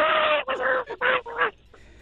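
A chicken squawks loudly in about four rapid, harsh bursts, then breaks off into near silence.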